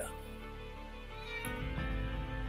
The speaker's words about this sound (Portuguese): Minha gatinha já está miando aqui na janela, está varando, Está dizendo, pai, chega, acabou, pai. Quer botar comida para mim? minha gatinha.